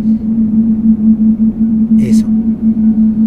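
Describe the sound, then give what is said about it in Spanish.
A steady low electronic tone drones throughout, a continuous hum used in an audio game as the cue for a wall behind the player, with a brief spoken word cutting in near the middle. “Cuando una pared está delante de nosotros, se escucha... Ah, ah, no, atrás de nosotros, se escucha así.”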